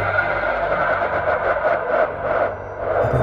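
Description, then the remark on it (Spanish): A car engine hums steadily with a constant road rumble and slight swells in loudness as a car driven by a woman pulls up to pick someone up. No one speaks. “Ella se ofreció a llevarlo, su transporte estaba por llegar.”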